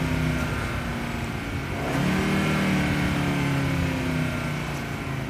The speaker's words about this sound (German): Aber so richtig Schmalz oder nicht? doch ein Fünfzylinder. Ach, jetzt hat schon, ja. Also das hat sich angehört wie ein, ja. ein Audi Sport Quattro.